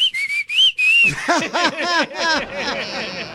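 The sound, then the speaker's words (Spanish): A clear catcall whistle: a few short chirpy notes and then a longer sliding one, quickly followed by several people bursting into laughter. “Oye, México es el único país en el mundo donde te chiflan así y preguntas para quién, güey.”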